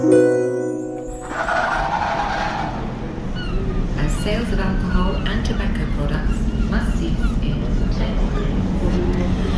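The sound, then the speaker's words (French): Ambience at the entrance of a cafeteria reserved for truck drivers, only men at tables, some drinking coffee or beer, some reading: a steady, fairly loud hubbub of overlapping indistinct voices with scattered clinks and clatter, continuing unbroken after a brief tonal sound at the start. “Donc là, on se trouve euh, à l'entrée de, de la cafétéria réservée aux chauffeurs de camions.”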